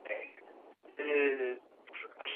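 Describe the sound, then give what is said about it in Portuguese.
A tinny, narrow-band voice on a mobile phone line breaks up, its speech choppy and fragmented, with a brief total dropout to silence partway through. “a qualidade da ligação por telemóvel está a degradar-se, não ouvi essa parte da sua intervenção.”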